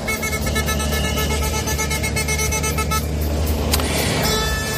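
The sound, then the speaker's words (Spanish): Loud, continuous blaring of many vehicle horns overlapping in a traffic jam caused by farmers' tractors blocking traffic during a protest in Spain, with a steady low engine rumble beneath and no talking. “Se repiten las escenas de los tractores impidiendo el tráfico mientras los conductores y los transportistas esperan, esperamos, atrapados en el atasco.”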